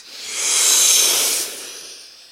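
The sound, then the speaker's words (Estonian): A single long, deep breath drawn in through the nose to fill the lungs during a guided breathing exercise: a steady airy hiss that swells over about a second, then tapers off. No talking. “ja ükskord veel nii, väga hea, veel ei ole lõppenud, nüüd tõmbame kopsud täis.”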